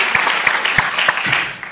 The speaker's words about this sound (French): On s'applaudit.